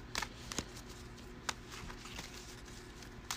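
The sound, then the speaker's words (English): A deck of cards is shuffled quietly as a hand is shuffled back in for a mulligan in a card game, a soft papery rustle broken by a few sharp slaps and flicks at uneven intervals, with no voices. “So I will shuffle this back and do a mulligan.”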